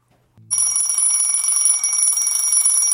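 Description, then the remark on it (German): An alarm clock ringtone bursts in after a brief low click and rings continuously, loud, shrill and buzzing with steady high tones, with no talking. “Macht diesen schrecklichen Klingelton aus.”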